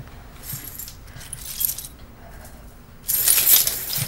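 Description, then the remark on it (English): Metal keys jingle in short shaking bursts, soft at first and then a louder, sustained rattle near the end, with no voices. “I'm gonna hang on to the keys.”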